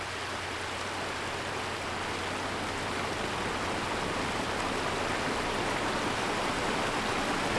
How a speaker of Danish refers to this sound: Det regnede i går, så vandløbet i fængselsgården er fyldt godt op. Vandet strømmer ind fra fjellet, løber gennem seks lodrette trammer i rustfrit stål i muren, og forbi træværkstedet, hvor de indsatte arbejder. Bagefter løber den ned i den store sø